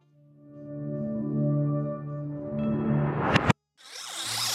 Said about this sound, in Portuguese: Vamos começando então com o som misterioso da semana passada, que estava ridiculamente fácil, que é do som de abertura do Netflix. Isso mesmo, só que ele estava ao contrário, em reverse. Vamos ouvi-lo de novo e entrar na pauta de hoje.